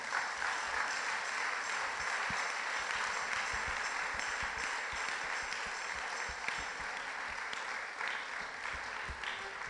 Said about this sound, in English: So let's rejoice. Give a clap offering to the Lord.